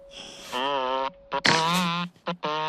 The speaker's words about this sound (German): Oh, was ist das denn für ein Krach? Ach, der Elefant hat dich geweckt. Jetzt wird es ja noch lauter.